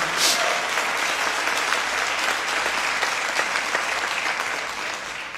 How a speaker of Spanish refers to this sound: Vamos, si va a aplaudir, apláudale fuerte al Señor.